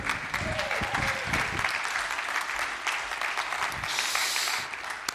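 A church audience applauds steadily to welcome the preacher, a dense wash of clapping that fills the whole clip at an even level, with a faint cheer or voice mixed in partway through.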